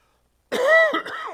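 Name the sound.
cough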